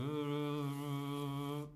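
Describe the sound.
A person hums a steady, low, droning buzz, mimicking a fly. It holds one even tone for under two seconds, then stops abruptly.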